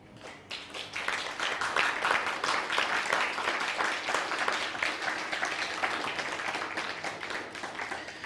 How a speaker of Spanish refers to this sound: Ahora sí, fuerte aplauso, por favor.